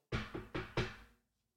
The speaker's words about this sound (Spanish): Así, una mano, o sea, se oyó que era una mano y me toca en la ventana.